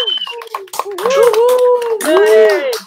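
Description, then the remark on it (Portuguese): A round of applause from a group for a participant at the Mostra Sururu showcase, quick overlapping claps throughout, with high cheering voices and whoops rising over the clapping, loudest toward the end. “Porque você vai receber uma imensa salva de palmas da gente pela sua participação.”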